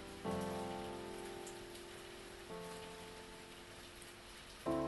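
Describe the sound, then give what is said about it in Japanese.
Steady rain falls at night throughout, a dense, even hiss, while sustained tonal notes swell in three times, at the start, midway and near the end, over the patter. “初7日も過ぎたある雨の夜”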